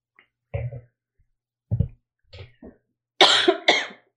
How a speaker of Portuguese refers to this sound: E agora eu vou tossir. Peraí.